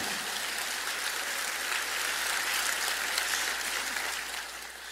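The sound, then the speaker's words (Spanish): A church audience applauds for the Lord in a steady, dense wash of clapping that holds for several seconds before tapering slightly at the end, with no voices standing out. “Un aplauso más para el Señor.”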